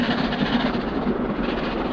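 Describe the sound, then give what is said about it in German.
A locomotive train rumbles steadily along the rails at nightfall, heard from the front carriage: a continuous loud roar of wheels and carriages with a low droning hum underneath, sustained without pause. “Vor mir flammte mit furchtbarem Geräusch die Lokomotive und mächtige rote Strahlen bewegten sich, Bäume und Hügel färbend, mit den Rädern vorwärts.”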